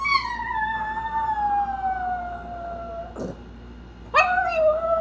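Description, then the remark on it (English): A small dog, a nine-pound chihuahua, howls after its owner has left the house: a long, high, wavering howl that slowly sinks in pitch, then a brief pause before another sharp howl. Fairly loud, with no talking. “So, like, this is what she sounds like after I've left the house.”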